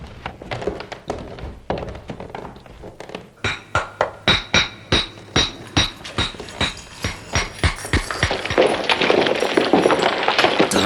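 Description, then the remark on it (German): Rapid, regular hammer blows strike a wall as two men break through it with tools, a steady train of sharp thunks with glassy, ringing overtones, ending in a louder crumbling rush of breaking material and debris. “Schlagen Sie diese Wand ein.”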